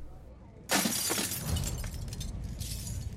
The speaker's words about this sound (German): Der Polizist Rob Nichols schlägt die Glastür eines Cafés ein.